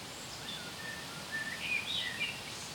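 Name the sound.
eurasian blackbird singing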